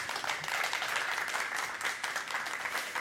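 A burst of applause from a group for two guests on a Dutch show, many hands clapping in a dense, steady wash of crackling claps that holds at an even loudness throughout, with no one speaking.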